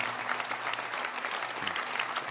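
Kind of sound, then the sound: crowd, audience clapping hands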